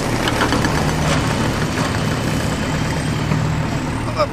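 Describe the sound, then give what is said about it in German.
A heavy engine drones steadily for several seconds, a loud low rumble with a faint rhythmic knock, like construction machinery idling; no one speaks. “Bauen die da irgendwas? Ähm, vielleicht kann ja Jenny was dazu erzählen. Was machen die da mit ihren seltsamen Maschinen”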